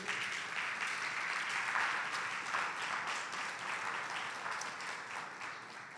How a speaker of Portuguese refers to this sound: Você pode aplaudir o nosso Deus?